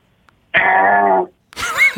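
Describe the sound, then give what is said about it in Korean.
A voice imitates the doorbell at the big front gate of a huge, tall mansion with two loud sung tones: a long, steady buzzy note, a short pause, then a second note that bends and wavers in pitch. “초인종을 그 엄청난 대저택의 초인종 소리입니다.”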